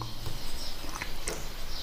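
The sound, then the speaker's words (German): Several birds chirp and sing high over a steady hiss of outdoor background noise, with brief scattered calls overlapping rather than one clear song. “Ja, denke, wie schön ist eigentlich so ein Vogelkonzert, ja?”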